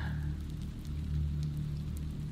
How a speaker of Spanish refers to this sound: Afuera llovía, pero ya no tan fuerte como un rato antes.